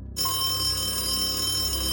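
A telephone on a table rings with a steady, bright electronic tone that starts abruptly after a brief silent moment and holds continuously, fairly loud, with no talking.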